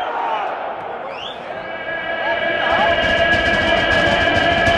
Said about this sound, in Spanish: Ya estamos aquí, se nota el ambiente cinco minutos antes. Suena Athletic Club. Sonido ambiente salida de los jugadores.